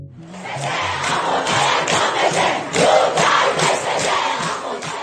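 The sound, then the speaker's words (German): A large street crowd at a protest in Iran chants in unison, many voices shouting in a steady rhythmic pattern, loud and sustained throughout without pause. “Die Proteste in Iran reißen auch gut einen Monat nach dem Tod der 22-jährigen Mahsa Amini nicht ab.”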